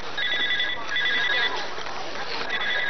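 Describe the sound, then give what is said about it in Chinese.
A mobile phone rings with a bright, high-pitched electronic trill that repeats in short bursts, roughly three rings separated by brief pauses, over a faint background murmur. “再接最后一次。喂，宋总，刚才掉线了”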